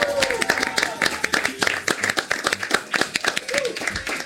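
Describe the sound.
A small group claps steadily and rapidly for several seconds, the dense applause fairly close and loud, with a few voices calling out underneath.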